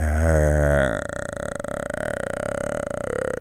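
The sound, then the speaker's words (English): A man vocally imitates a long, blissed-out drugged groan, like the noise people make in movies when doing heroin: a deep, throaty burst that thins into a steady, buzzing drone held for about three seconds, with no other sounds. “it's the same noise that they make at the in the movies when people do heroin.”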